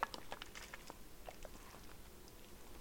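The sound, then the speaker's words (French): A quiet sip of coffee: soft wet mouth clicks and small smacking sounds scattered over a few seconds, with a sharper click at the start and end and no talking. “Mais, prendre une petite gorgée donc café.”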